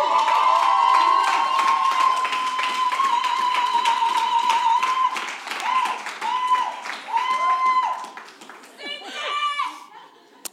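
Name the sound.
audience cheering and clapping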